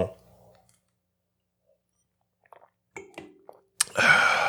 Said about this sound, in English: it's because we're usually sipping on something. I, I got some proper 12 going here.